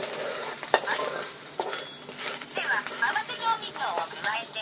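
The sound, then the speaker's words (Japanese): Food sizzles steadily in a hot pan over medium heat after a mixed seasoning is added, a continuous hissing crackle broken by sharp clicks and scrapes from stirring, with a faint voice murmuring in the background. “合わせ調味料をでおおいい音っすね中火でひと煮立”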